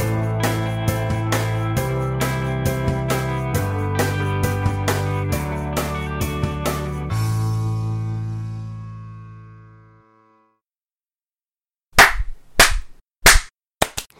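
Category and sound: human body sound, hand clapping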